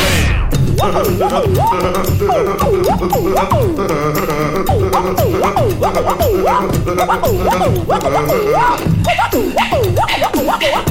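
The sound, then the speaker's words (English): A loud, continuous beatbox performance: quick, steady percussive bursts layered under a warbling, swooping vocal melody that rises and falls in short repeated phrases for the whole stretch. “Just listen to the beatbox; he will”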